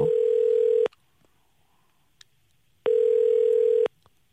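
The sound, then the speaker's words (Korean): A telephone ringback tone heard from the caller's end as a call is placed to a listener: two steady, clear electronic buzzing rings, each about a second long, separated by a two-second silent pause, with no voices. “한번 전화 한번 해서 어떤 일 하실지 간단하게 8183님 한번 전화 한번 걸어보겠습니다.”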